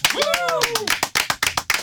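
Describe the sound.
Quick hand clapping in an uneven burst of about a dozen sharp claps from a small group, with a rising and falling voiced whoop over the first half, welcoming a guest.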